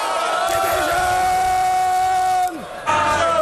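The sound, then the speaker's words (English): Members of parliament shouting in a chamber: a dense, loud roar of many overlapping raised voices, with a brief lull near the end before the clamour surges back. “There's no good people shouting.”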